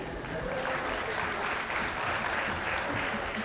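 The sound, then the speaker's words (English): Steady applause from an audience fills the space, a dense wash of many hands clapping at once, sustained and even in loudness without a break for the whole stretch. “Give him a hand.”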